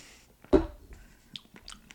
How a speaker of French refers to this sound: Et ça, euh, ça mérite une gorgée de smoothie. Probablement la dernière.